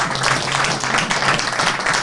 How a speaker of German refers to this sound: Und der Applaus zeigt sowas natürlich.